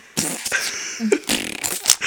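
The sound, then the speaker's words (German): A toy game lets out a loud, raspy fart noise when pressed, sputtering in several quick bursts over about two seconds, with no talking. “das so unintelligenteste Spiel, was ich habe, ist Mr. Pups”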